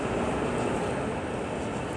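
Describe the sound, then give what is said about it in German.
Steady, dense rumble inside a main train station as people walk through the door into it and up towards the S-Bahn, a broad wash of mechanical hum and rail noise with no distinct events, constant in level throughout. “Genau, wir laufen jetzt gerade durch die Tür in den Hauptbahnhof rein, äh, hoch zur S-Bahn.”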